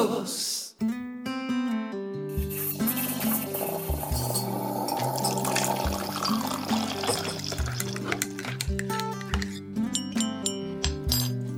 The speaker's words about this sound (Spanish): Eso suena esa cucharita que dice que estamos en café.